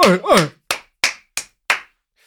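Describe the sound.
A short voiced exclamation, then four sharp, loud hand claps from a man applauding while standing, at a slightly uneven, unhurried pace, followed by one faint final clap.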